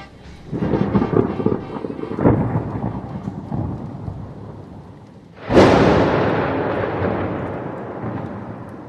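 Thunder rumbles over steady rain in the rainy season, building in waves before a sudden loud crack and a long rolling boom as the downpour sweeps in.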